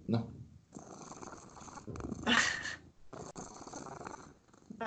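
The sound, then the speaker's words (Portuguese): A cat purrs in a steady, rumbling stream across the whole clip, with brief breaks and a soft voice murmuring in the background. “tá ronronando.”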